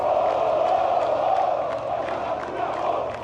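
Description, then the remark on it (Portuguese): A large crowd of Santos football fans protests after a defeat to Atlético Paranaense that eliminated the team from the Copa do Brasil, shouting and chanting together in a loud, continuous roar, voices blending into a dense wall of sound with no distinct speech. “Depois da derrota para o Atlético Paranaense, que eliminou o time da Copa do Brasil, houve muito protesto da torcida.”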